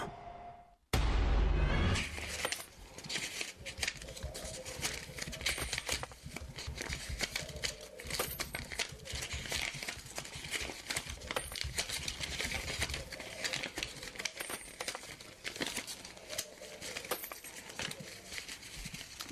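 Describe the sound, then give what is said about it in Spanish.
Money being handled: a dense, steady stream of rapid clinks, rustles and crinkles running for nearly twenty seconds after a sudden loud onset, with no voices. “Estábamos escuchando pues esto que es dinero”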